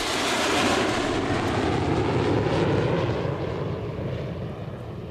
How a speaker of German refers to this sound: Da fliegt zuerst ein Flugzeug. Es ist nämlich Urlaubszeit.